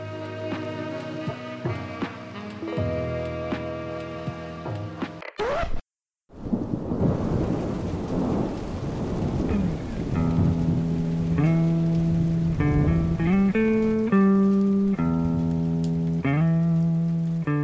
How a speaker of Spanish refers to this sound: Pero a veces un día soleado se transforma en un día de tormenta.